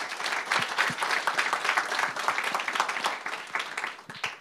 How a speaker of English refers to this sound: So we've got a fairly interesting sort of panel. If we can uh, have a round of applause to cheer them on to start off with.